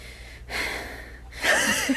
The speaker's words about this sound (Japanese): あ、息切れんねや。じゃあやめといてもいいで。